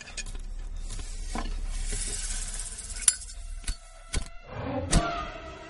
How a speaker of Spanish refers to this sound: Paul agita la petaca hacia los pies del ataúd, lanzando líquido junto a la serpiente.